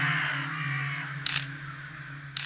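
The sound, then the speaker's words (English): A crow standing in a tree outside an apartment, eating a rabbit carcass, gives two short, harsh caws about a second apart, loud, over a steady low electrical hum with no one talking. “So I, I open my apartment door I look out at the tree and I see the crow standing there eating a rabbit carcass.”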